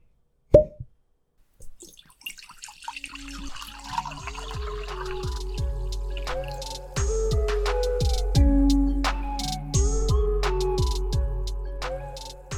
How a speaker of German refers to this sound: Die Korken knallen, der Prosecco fließt.